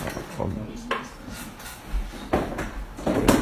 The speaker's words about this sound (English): Uh, you can just you can just stay there. There's a space there. And put a chair.